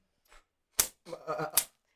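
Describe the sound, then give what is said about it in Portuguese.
Two sharp, snapping cracks of a leather whip, each a loud, brief slap about a second apart, with a short burst of voice or laughter between them. “E aí eu trouxe só pra representar mesmo esse aqui o chicote, né?”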